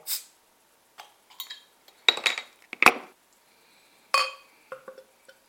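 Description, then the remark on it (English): A 12-ounce (355 ml) beer bottle is opened with a De Hayden bottle opener from the Netherlands and poured into a glass, golden in colour: a short hiss, then a series of sharp glassy clinks and clatters spaced irregularly, with no one speaking. “So let's get this out into my glass and see what I think of it.”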